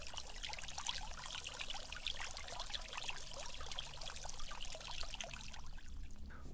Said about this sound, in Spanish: Obviamente, los catadores tienen la responsabilidad de preparar el café en una infusión. Este café ya fue debidamente tostado, molido y se le ha agregado agua caliente.